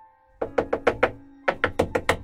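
A neighbour's eighteen-year-old daughter knocks urgently on a house door at about nine at night: a quick run of five sharp raps, a brief pause, then six more, each hit crisp and fairly loud with a hollow wooden thud. No one speaks.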